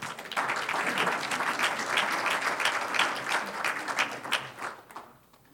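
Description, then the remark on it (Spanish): Steady applause from a large audience during a Spanish-language church sermon, given as applause to the Lord, many hands clapping together in a dense, sustained wash that fades out near the end. “Un aplauso al Señor.”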